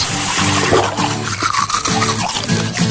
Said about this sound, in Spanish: Cerrar el grifo mientras nos cepillamos los dientes